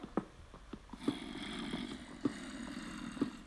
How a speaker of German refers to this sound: Und die Stimmen der Zombies werden immer lauter.